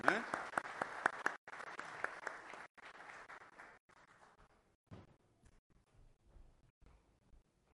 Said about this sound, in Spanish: Así que Dios le bendiga a cada uno y, le demos un aplauso de nuevo a cada uno.